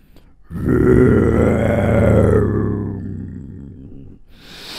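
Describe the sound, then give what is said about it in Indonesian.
A voice imitates a lion's growl as the lion Om Singa wakes up in a children's story: one long, loud, rumbling roar lasting about three seconds, slowly fading before a brief breathy hiss. “Seketika Om Singanya terbangun.”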